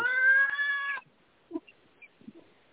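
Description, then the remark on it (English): A cat lets out one loud, drawn-out meow lasting about a second, followed by a few faint, brief rustles and taps in otherwise quiet surroundings. “And why am I hearing cat noises?”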